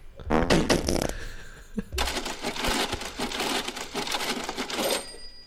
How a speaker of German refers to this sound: Katsching. Den hat man noch. Das ist so der Ausgeber.